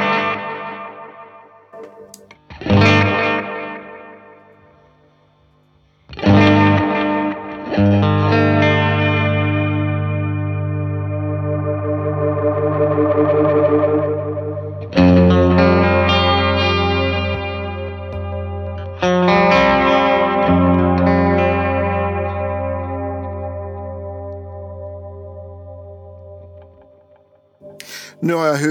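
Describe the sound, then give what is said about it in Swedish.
An effects pedal demo with the reverb turned down: distorted electric guitar chords struck one after another, each ringing out long and loud on its own with little lingering reverb, then fading to near silence. “Jag drar ner reverbet så låter det så här.”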